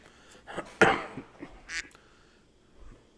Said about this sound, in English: I don't know why. I don't know why we have so many fucking ducks around here.